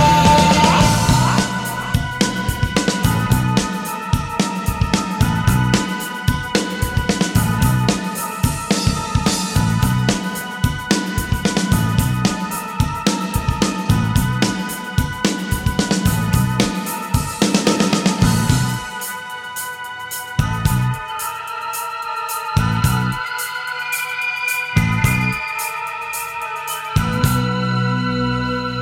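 A loud rock song by a Chilean band, with a full band and a driving, steady drum beat under dense guitars; near the end the drums drop away, leaving sustained chords punctuated by sparse, regular hits.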